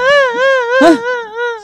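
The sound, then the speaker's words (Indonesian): A voice imitates wailing, crying sounds in a sustained, wavering tone, with a brief louder burst partway through, fairly loud. “Suara apa itu? Siapa yang menangis?”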